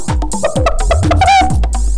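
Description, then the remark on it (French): A hen clucks in a steady series of short, throaty calls about twice per second, with a higher, drawn-out squawk in the middle, all fairly loud with no talking. “Alors les amis, vous aimez les animaux Écoutez la poule”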